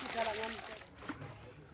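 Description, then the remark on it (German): Water rushes and splashes steadily down a sluice used for gold panning, washing dust along in a broad, hissing wash while gold particles settle in towels laid in the sluice, with voices heard over the flow. “Der Staub wird über die Wasserrutsche gespült und weil Gold 19 mal schwerer ist als Wasser, setzen sich die Goldpartikel in den ausgelegten Handtüchern ab.”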